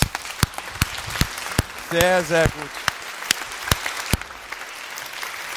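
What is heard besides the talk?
audience applause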